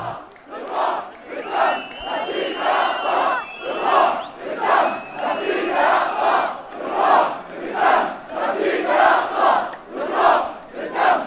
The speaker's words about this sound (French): Nous voilà donc dans la manifestation. Tu entends les gens crier des slogans en faveur de la Palestine. Ces gens portent des drapeaux et des foulards palestiniens.